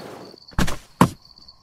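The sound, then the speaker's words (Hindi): A van's rear door is opened by three men loading belongings into the back, with two quick, solid metallic clunks and a brief rattle between them, while a faint steady insect chirp hums in the quiet background. “पीछे का दरवाजा खुलने की आवाज सुनकर वैन चालक भी उठ गया”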